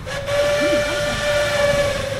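A steam train in Tierra del Fuego, heading to the End of the World station, sounds its whistle. The whistle holds one long, steady note over a constant roar of hissing steam, loud throughout, with a faint wavering murmur low underneath.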